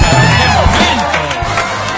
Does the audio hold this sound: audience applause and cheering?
yes